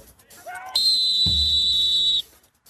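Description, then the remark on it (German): A loud, shrill referee whistle blasts once and holds steady for about a second and a half, with a thud and some background chatter around it. “Brauche ich nicht, ist doch gepfiffen.”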